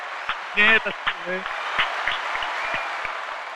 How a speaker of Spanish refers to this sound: Bueno, lo único que queda aquí, gente, es un aplauso para nuestro nuevo rey.